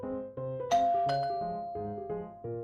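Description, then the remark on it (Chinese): A doorbell chimes a short tune of several bell-like notes, two brighter metallic strikes ringing out over a steady sustained tone, fairly loud with no voices. “这时，门铃又响了”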